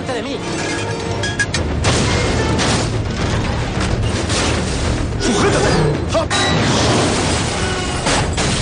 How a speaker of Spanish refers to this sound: Para ahuyentar a sus perseguidores, deja caer sobre el asfalto unas bolas con pinchos. Al pasar sobre ellas, los coches policiales revientan sus neumáticos y vuelan por los aires.